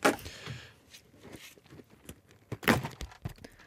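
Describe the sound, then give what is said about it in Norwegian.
A round, brownish Berthas pepperkakehjerter (gingerbread hearts) cookie tin being pried open: scraping metal and a sharp pop of the lid, followed by light rattling and a second louder clack as the lid comes free. No talking. “Mitt problem når jeg skal åpne denne boksen, er at noen av disse er veldig vanskelig å åpne.”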